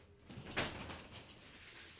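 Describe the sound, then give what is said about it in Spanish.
A cat scratches and bumps at a door: one sharper thump stands out, followed by a few softer, rattling taps, faint, with no one speaking. “Este, aguántame, mi gato está tocando la puerta.”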